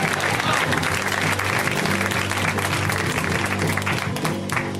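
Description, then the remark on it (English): A live audience at a comedy show claps and cheers loudly and steadily as comedian James Adomian is introduced, a dense wash of many hands with scattered whoops, with no one speaking over it. “Let's hear it right now from Mr. James Adomian, guys. Give it up for James.”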